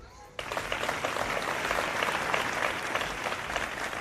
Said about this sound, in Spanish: Los aplausos han roto el doloroso silencio de una concentración frente al ayuntamiento envuelta en llanto.